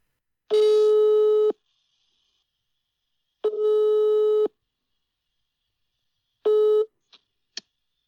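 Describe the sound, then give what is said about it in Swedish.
Three long, steady electronic ringback tones on a phone call to the holder of the Swedish pike record, each about a second, separated by pauses of roughly two seconds, followed by a couple of faint clicks as the line picks up. “Jag ringde upp för att se hur han reflekterar och tänker kring dagens nyhetshändelser om …s gädda.”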